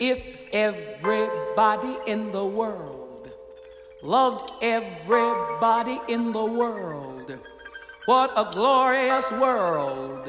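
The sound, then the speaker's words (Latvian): A woman sings a sweeping, vibrato-rich ballad over orchestral accompaniment, her phrases rising and falling in three long lines separated by brief pauses; it is the original 1960s studio recording of the song. “Un oriģinālā versijā tas izklausās šādi.”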